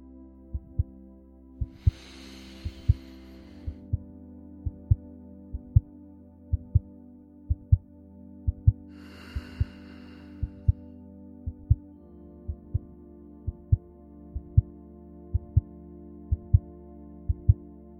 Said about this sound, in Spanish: Visualiza el oxígeno que llena tus pulmones, la sangre que recorre tus venas, los latidos de tu corazón.